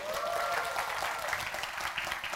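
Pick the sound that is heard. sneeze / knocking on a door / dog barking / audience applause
audience applause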